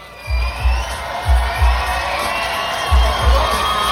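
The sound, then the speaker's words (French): A large crowd at a rap festival in Quebec cheers and shouts continuously for the artists on stage, a loud dense roar of voices, while deep thumping low bass beats pulse beneath in pairs. “Yo, faites du bruit pour ça!”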